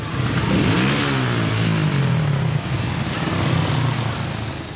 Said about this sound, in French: C'est le cas de celle d'une femme de ménage à Corba, au nord-est de la Tunisie, dans la région du Cap Bon, où le bruit quotidien des mobilettes trouble la tranquillité du littoral.